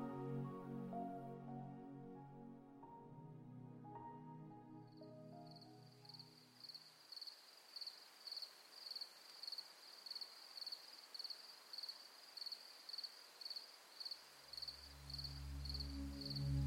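Crickets chirp in a steady, rapid pulsing rhythm against a quiet night backdrop, following a soft musical passage that fades out, with a low rumble rising near the end.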